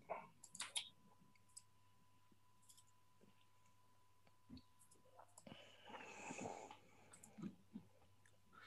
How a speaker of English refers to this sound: So basically, um, I'm just double clicking on it